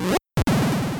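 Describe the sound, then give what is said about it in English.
A video game door-opening sound effect: a short electronic burst, a sudden gap of silence, then a loud, buzzing, warbling synthetic tone that fills the rest of the second, with no voices. “there's a specific noise that happens when you open a door, when you go through a door. It goes like I'll I'll cut it in, but for me and my sisters, that noise was always rectagon”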